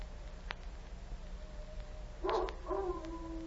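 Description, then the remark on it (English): A dog howls, a short rising cry followed by a longer sustained wail over a steady low hum, with no one speaking; the howl seems to come from behind a rock. “Sounds like a dog howling.”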